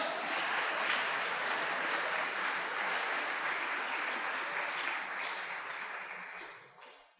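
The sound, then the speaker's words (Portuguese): An audience at the Igreja Missionária Evangélica Maranata applauds the Lord in the morning, a dense, steady wash of clapping that holds evenly for about six seconds before tapering off quickly at the end, with no voices heard over it. “Você pode aplaudir o Senhor nessa manhã?”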